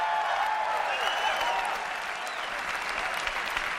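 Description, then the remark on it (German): Sustained applause from a large audience as company chief Steve Jobs presents the iPhone in 2007, a dense, steady wash of clapping that holds at an even, fairly loud level throughout, with faint crowd noise underneath and no speech. “Am Ende präsentierte Firmenchef Steve Jobs 2007 unter weltweitem Beifall das iPhone.”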